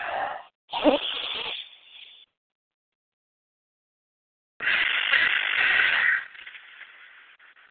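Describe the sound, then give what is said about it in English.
Slow, deep belly breathing, in through the nose and out through the mouth: an airy breath in and out, a few seconds of silence, then another long, steady breath that fades out. “Now we're going to begin belly breathing in through your nose, blowing up your belly like a balloon, and out through your mouth.”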